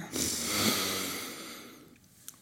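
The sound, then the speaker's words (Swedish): A long, deep breath drawn in through the nose on a count of three during a breathing exercise, a broad airy hiss that swells over about a second and a half and fades, fairly quiet, with no talking. “Och härifrån så tar vi ett djupt andetag på tre, två, ett. Andas in.”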